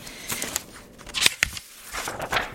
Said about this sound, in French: En tout cas, je crois que si on entend ce bruit-là, tout le monde peut référer à une page de papier qu'on plie ou qu'on tourne d'un livre.